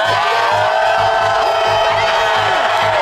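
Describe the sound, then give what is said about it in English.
A loud stadium crowd at Faurot Field cheers and yells continuously for the Tigers football team on defense, a dense roar of many voices, with a steady rhythmic low thumping pulsing underneath throughout. “We need some noise!”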